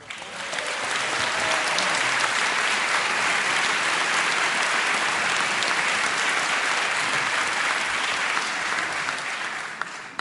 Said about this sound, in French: Euh, madame est maire UDI. Mais on l'applaudit quand même.